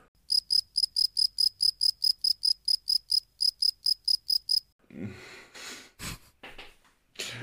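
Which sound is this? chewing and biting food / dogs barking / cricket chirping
cricket chirping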